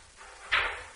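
A chair is shifted across the floor in one short scraping drag, sudden, then fading over about half a second, with no talking.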